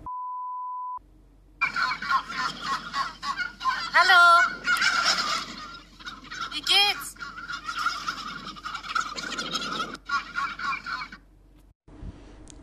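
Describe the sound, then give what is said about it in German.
A flock of turkeys cackles and gobbles in a dense, overlapping chorus of bubbling calls, with louder rising gobbles bursting out now and then. A short electronic beep sounds first. “kommt man an so einem Truthahnschwan vorbei und äh, die fangen dann an, so vor sich hin zu gackern”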